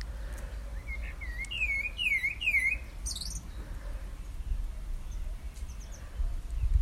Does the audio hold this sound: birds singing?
yes